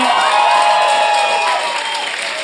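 An audience claps steadily and loudly throughout during a live show, a dense wash of hand claps mixed with a few cheers and whoops, fading only slightly toward the end.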